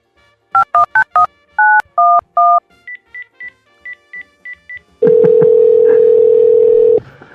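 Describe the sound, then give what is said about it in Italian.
Telephone keypad dialing tones beep in quick succession as a call is placed to a person to be interviewed, then a run of short, higher, evenly spaced beeps, ending with a loud, steady tone held for about two seconds. No one speaks. “Ma che dite? Vogliamo andarla a chiamare?”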